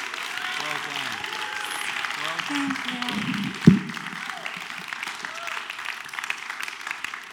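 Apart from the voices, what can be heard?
audience applause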